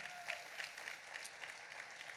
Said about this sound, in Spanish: Un aplauso, por favor.